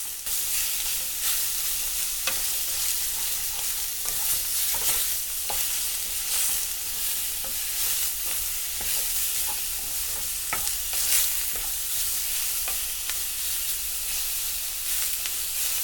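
Two tablespoons of green curry paste are stir-fried in a pan until fragrant, then two small cans of coconut milk are stirred in: a steady, bright sizzling hiss runs throughout, punctuated by sharp intermittent clicks and scrapes of a spatula stirring. No one speaks.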